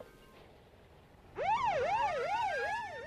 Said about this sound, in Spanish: Escuchó las sirenas de los coches patrullas que cruzaban el barrio portuario.